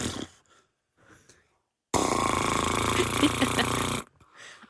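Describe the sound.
A voice blows a loud, sustained raspy sputter lasting about two seconds, imitating a long vaginal fart, with brief soft vocal sounds before and after.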